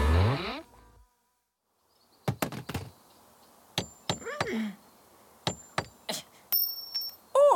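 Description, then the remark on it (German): A series of sharp metallic clinks and knocks, irregular, with brief scraping in between, from fumbling with a stubborn screw against metal hardware; a short rising tone and a faint tinkle come near the end. “Warum funktioniert das denn nicht? Diese, diese vermaledeite Schraube.”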